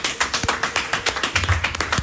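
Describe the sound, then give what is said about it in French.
A small group applauds in a studio, a quick, dense patter of handclaps with no voices, steady for a couple of seconds. “Je vais entendre des applaudissements dans ce studio, s'il vous plaît.”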